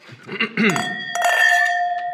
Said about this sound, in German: Können wir jetzt endlich mal anstoßen?